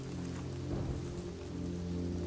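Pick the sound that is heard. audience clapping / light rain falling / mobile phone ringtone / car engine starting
light rain falling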